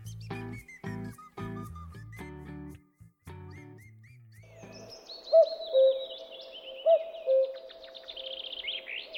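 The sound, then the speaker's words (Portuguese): A brief plucked musical phrase gives way to two distinct two-note cuckoo calls, fairly loud, spaced about a second and a half apart over a steady hum and faint high chirping. “você está ouvindo o Sabiati Cast, ao toque de dois cucos”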